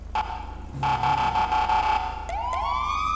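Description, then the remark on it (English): A loud police siren sounds a high-low two-tone pattern, used in place of a hyper yelp tone, in steady alternating blasts, then ends with a couple of quick upward sweeps. No one speaks. “That's what siren sound like.”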